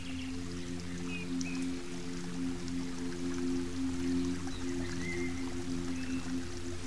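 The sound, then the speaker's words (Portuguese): Steady, gentle splashing and trickling of water in a garden fountain, running continuously at a moderate level, with a low hum underneath and a few faint high chirps now and then. “Finalmente, um jardim deve agradar nossos ouvidos também, através do canto de seus pássaros e do murmúrio suave da água em suas fontes.”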